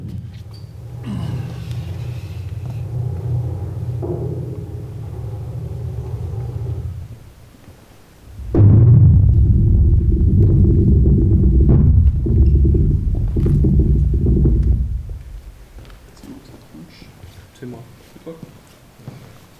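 A deep, continuous glacier rumble picked up by hydrophones and seismic sensors placed in crevasses, glacial torrents and moraine folds: a steady low groan for several seconds, then a heavier, louder surge that holds before fading into quieter crackling.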